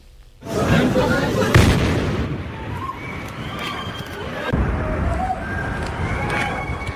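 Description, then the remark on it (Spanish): A bomb explosion on the busy Istiklal shopping street in Istanbul, Turkey, erupts suddenly and loudly, with a second heavy burst moments later, then a long rumbling roar of debris and noise as voices cry out over the din. “Este era el momento de la explosión.”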